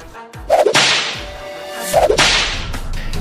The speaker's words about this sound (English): You hear me? Or you want this whip to do the talking?